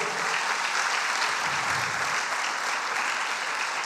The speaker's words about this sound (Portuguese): Quantos creem nisso, diga aleluia. Aplauda ao Senhor. Aleluia.